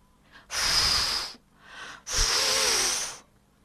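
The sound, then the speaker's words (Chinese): A voice imitates the big bad wolf from the Three Little Pigs tale blowing hard at the door of the third pig's house: two long, loud, breathy whooshes with a softer intake of breath between them, and no speech. “大野狼站在大门前，他知道房子里有三只小猪，可是他不知道怎样才能进去，所以呢，他只能对着房门继续吹气。”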